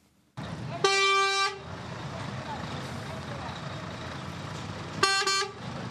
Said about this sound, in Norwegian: Morgenrush i et veikryss på en av innfartsårene til Bamako. I en stri strøm suser biler, busser og en armada av små motorsykler forbi to av krigens ofre i Mali.